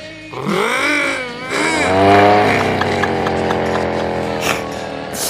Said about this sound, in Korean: 말들을 계속하면서 오토바이를 말처럼 몰며 막 속력을 냈으나 그 오토바이는요 됐다 조그맣고 연식이 되게 오래돼서 그런가 아 되게 후 아, 그니까, 뭐랄까, 아, 그니까 러 속도가 아예 안 나는 거였어요. 헤라, 헤라! 힘을 내, 오토바이!